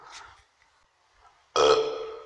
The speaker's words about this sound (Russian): А, о, отрыжка. Странное ощущение.